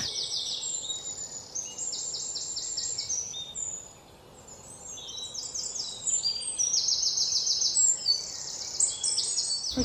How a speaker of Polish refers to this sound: I większość jakichś nietypowych dźwięków, które usłyszymy, jakieś takie ćwirknięcia, takie e, pisknięcia, takie nie wiadomo co, możemy zrzucić po prostu na sikory, bo one mają bardzo bogaty ten ptasi słownik.